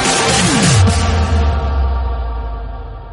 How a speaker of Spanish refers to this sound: quería hacer un regalito, chicos, un tema más, estrenándolo en primicia mundial